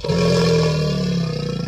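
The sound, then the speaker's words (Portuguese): A deep, loud crocodile bellow rumbles continuously for nearly two seconds, sustained, with a slight pulsing throb toward the end. No voices accompany it. “Sim, para você que não conhece, esse é um som de um crocodilo.”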